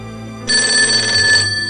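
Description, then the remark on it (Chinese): A telephone rings once, a bright, shrill metallic bell trill lasting about a second, then cuts off, leaving only a low hum behind; the single ring is a signal that someone has arrived home safely. “话音刚落，电话又响了，只响了一声。”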